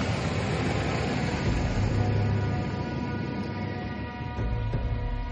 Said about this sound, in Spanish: Más tarde, Isaac y Lindsay llegan a la oficina del serie. Ahí, se acercan con el coche.